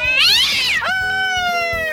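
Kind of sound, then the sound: animal, cat yowling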